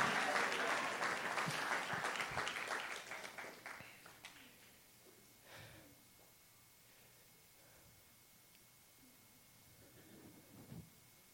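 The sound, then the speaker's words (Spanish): A church audience bursts into loud, dense applause for the Lord, with many hands clapping together for about four seconds before thinning out to a few scattered claps and fading to near quiet. “Alguien le da un aplauso al Señor y le dice, Señor, dame tu gracia.”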